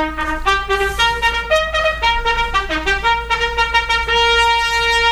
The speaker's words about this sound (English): A little royal salute music, please.